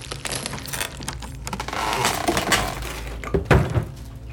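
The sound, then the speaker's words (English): Plastic wrapping on a big delivered box crackles and crinkles as it is cut and pulled away, a dense run of small snaps and rustles ending in a couple of sharper tearing rips. “Let's take the plastic off. Here, let me cut it.”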